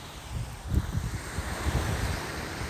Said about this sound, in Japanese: 聞きづらいかもしれないんですけどめっちゃ海だし。